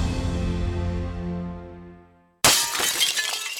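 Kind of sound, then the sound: impact, glass shattering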